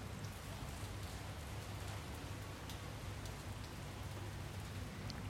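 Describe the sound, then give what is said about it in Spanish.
Steady rain falls continuously, a dense, even hiss with scattered brighter drops pattering on surfaces, heard from a balcony with no one speaking. “Porque estoy en un balcón y empezó a llover y me pareció bello grabar con lluvia, nunca había tenido la chance de hacerlo, así que acá estoy.”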